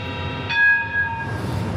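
A train rumbles as it arrives at a station, and a sustained high, tonal whine like a horn or squealing brakes swells briefly in the middle over a steady low roar. No one speaks.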